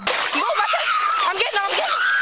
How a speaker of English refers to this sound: wades into the murky water along with a bystander.